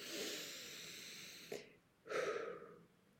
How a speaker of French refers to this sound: Je cherche mes mots. Attendez, je prends une respiration.